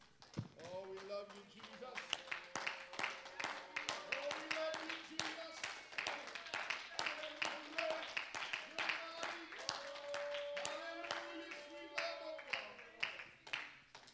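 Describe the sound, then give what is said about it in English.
An audience claps in praise for about fourteen seconds, dense and steady, while voices call out and sustained tones ring over the applause before it thins out at the end. “Can we give him a hand clap of praise tonight?”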